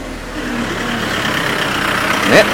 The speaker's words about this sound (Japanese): まあ今これちょっとまあ車が通ったりしてますけどこれがまあまさに、はい、えー、生散歩のね 生散歩っていうのは知らんけどまあもうほんま取って出しですからね取って出し散歩してるっていうのが分かってくれると思います